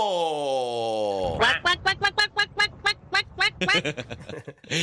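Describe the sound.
A person vocally imitates a duck, starting with a long nasal, wavering squawk and then breaking into a rapid run of about a dozen sharp, rhythmic, loud quacks.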